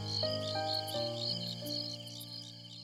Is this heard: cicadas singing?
yes